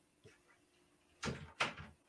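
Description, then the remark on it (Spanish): A door that had come open is pushed shut by someone who got up to close it: a faint bump first, then two solid thuds in quick succession as it closes and latches, with no talking. “perdón, perdón, es que se me abrió la puerta, no, ni siquiera te dije, nada más me levanté y lo cerré.”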